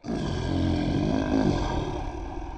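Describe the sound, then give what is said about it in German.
A lion roars in one long, loud, sustained bellow lasting a couple of seconds, deep and rumbling with a grainy texture, clear with no talking over it. “Raubtiere sind so eine Gruppe. Dazu gehört zum Beispiel der Löwe”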